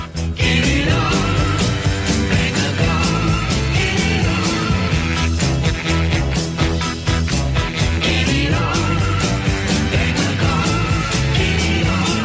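A glam rock song plays loudly and continuously, with a driving, steady drum beat, thick electric guitars and full band sound filling the whole stretch, no talking over it.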